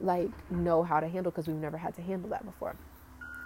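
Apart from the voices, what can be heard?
truck reversing beeps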